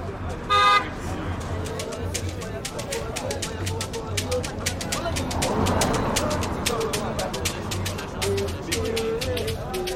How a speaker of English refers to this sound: We're standing outside of the New Africa Shrine in Lagos, Nigeria. There are many people about, listening to music, having a drink, having a laugh, yabbing, which is Lagos slang for admonishing, cutting, or razzing.